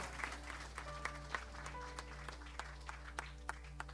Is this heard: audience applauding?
yes